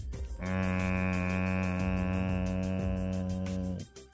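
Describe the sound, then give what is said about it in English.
A voice imitates the low droning hum of a purple blimp overhead, a single steady, loud, buzzy tone held for about three seconds before cutting off. “the sound of the blimp's hum they could definitely hear.”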